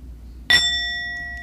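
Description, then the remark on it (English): A single strike of an actual bell dings sharply, then rings on with a clear, steady tone that fades only slightly, over a faint low background hum. No one speaks. “that is the sound of an actual That's the sound bell, of an actual and not a makeshift shit noise.”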